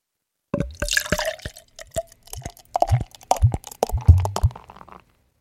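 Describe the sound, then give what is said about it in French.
Beer glugs out of a bottle into a glass in a run of uneven, hollow gurgles with a fizzy splash at the start, lasting several seconds before stopping. No one speaks. “Mais tu peux rien entendre avec ce type de bière, même. Mais si, mais si. Que nenni, tu vas voir. Alors, à mon tour.”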